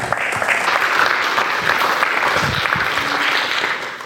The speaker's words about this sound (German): und Applaus für dich.